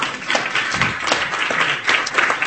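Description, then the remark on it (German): An audience claps steadily for the catering team, a dense wash of many overlapping hand claps with sharper individual slaps poking through, moderately loud and sustained without pause. “Genau, kann man mal klatschen, ja klar.”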